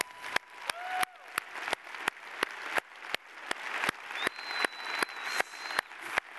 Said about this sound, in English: Would you do me a favor? Don't just clap, stand up right now. You've made progress in your life this year. That's worth praising the Lord about.